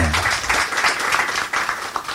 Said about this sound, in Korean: 여러분 박수 부탁드립니다.